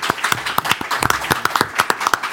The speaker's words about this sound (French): Applaudissements pour Maître Buté.